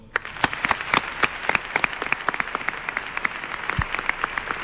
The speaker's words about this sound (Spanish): Un aplauso, por favor.